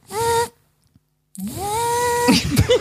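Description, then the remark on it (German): A voice imitates the tinny, mechanical hum of a radiotherapy machine, likened to a spaceship: a short buzzy tone, a pause, then a longer droning tone that slides up and ends in sputtering, clattery noises, fairly loud. “Nee, meins hatte mehr so, meins hörte sich mehr so an wie so ein, ja, wie so ein Raumschiff, also so mechanisches, blechernes Geräusch und dann wirklich so”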